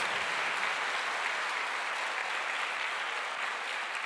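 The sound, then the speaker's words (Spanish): An audience claps steadily in applause to the Lord, a dense, sustained wash of applause, loud and even throughout with no voices standing out above it. “Otro fuerte aplauso al Rey de Reyes y Señor de Señores.”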